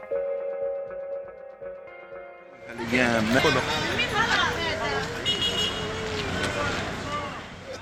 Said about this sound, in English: This is the sound of mass exodus. Early Friday morning, Israel's military told over 1 million people in northern Gaza to evacuate to the south.